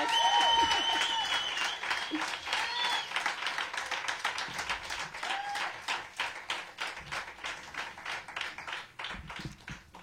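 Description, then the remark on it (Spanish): An audience on a radio program applauds warmly to welcome guest Jennifer Pareja, a dense wash of many hands clapping that stays steady for several seconds before thinning into scattered, uneven claps near the end. A faint voice or whistle comes through early on. “Lo que no queremos es que eh, el aplauso para recibir a Jennifer Pareja sea muy corto, así que damos el aplauso que se merece la gran Jennifer Pareja.”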